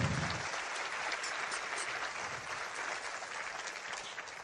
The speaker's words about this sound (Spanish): Un fuerte aplauso para el grupo técnico también. Nos están colaborando el día de hoy.